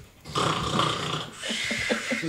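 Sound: voice imitating snoring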